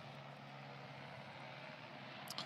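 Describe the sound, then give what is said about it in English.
A steady, low jet-like roar of airplanes passing overhead fills the whole stretch, with a faint droning hum underneath and no voices. “It's perfect timing with the airplanes.”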